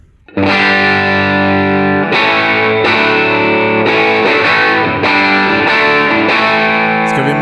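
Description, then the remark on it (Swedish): Electric guitar played through a Wampler Tumnus Germanium overdrive pedal with all controls set at noon, thick and crunchy, with sustained chords struck roughly every second and ringing into each other, loud with no voices. “I veckans pryl är det världspremiär på Wampler Tumnus Germanium.”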